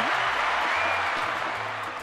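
Steady applause from a small group for maestro Papo Lugar, a dense crackle of clapping hands that holds at an even level for a couple of seconds, fairly loud.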